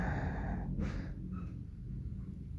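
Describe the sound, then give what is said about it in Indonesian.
A single brief, muffled door sound, like a door being shut, over a low steady background rumble. No one speaks. “sorry itu ada suara pintu”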